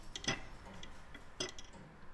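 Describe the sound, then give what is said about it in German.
Mechanical clockwork ticking of a tower clock at the tower clock museum in Gräfenberg, Franconian Switzerland, Bavaria: a few sharp, bright metallic ticks spaced about a second apart, with softer tocks between, over a low background hum. “Im Turmuhrenmuseum zu Gräfenberg in der fränkischen Schweiz kann man sogar hören, wie die Zeit vergeht.”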